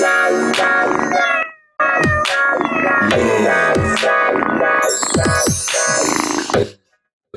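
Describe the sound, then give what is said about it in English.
A cat-themed chime effect: bright, ringing tonal notes mixed with several sliding meow-like cries, loud and busy for about seven seconds, with a short pause partway through and no talking. “This is this is the uh, cat themed one, which I really wanted to call kitty porn, but I didn't.”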